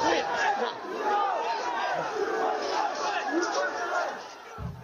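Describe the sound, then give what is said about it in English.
Rioters attacking the US Capitol on January 6 shout in a dense, continuous roar of many overlapping voices, loud and steady throughout, with scattered yells rising above the mass and no single clear voice. “Within 10 minutes, rioters had already filled the lower West Plaza.”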